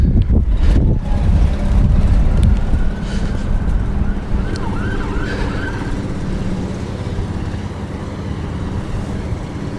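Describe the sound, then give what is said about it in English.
Police sirens wail faintly, their rising and falling tones drifting over a steady low rumble of traffic and wind outdoors, with no one speaking. “Ah, I'm hearing some police sirens.”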